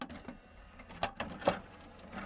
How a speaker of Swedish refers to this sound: Jag har en CD-spelare från grovsoprummet här. Ah. Den är lite trög på att mata ut och mata in skivorna. Men nu laddar jag nästa här.